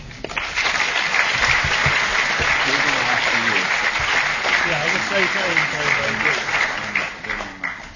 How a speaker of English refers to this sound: Okay, so perhaps we should start with a, a brief round of applause for the speakers.